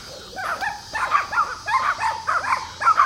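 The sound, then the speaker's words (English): Dogs with a woman bark excitedly in a rapid, uneven string of high-pitched yaps and yips, moderately loud, with no one talking. “I'm trying to figure out where this woman is going to go with these dogs because I don't particularly want my dog to mess with them.”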